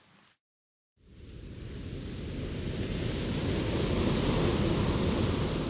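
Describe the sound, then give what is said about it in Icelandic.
After a brief silence, a steady roar of surf builds and swells at Reynisfjara beach in Iceland, broad rushing noise of waves breaking and washing up continuously, fairly loud with no voices. “Madurinn segir skildin sem eiga að vara fólk við hættilegum olguöldum eða sníkerveifs illskiljanleg og gagslaus og vill að komi verði upp gæstlu í fjörunni.”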